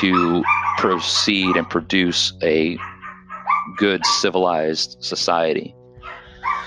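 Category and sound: animal, dogs barking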